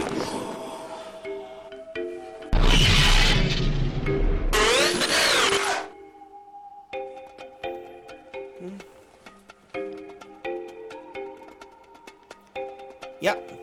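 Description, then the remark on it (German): An electric power drill whirs loudly in two bursts, the second winding up in pitch before cutting off, with quieter tonal sounds continuing around it. “deswegen würde ich niemals selber eine Bohrmaschine angreifen.”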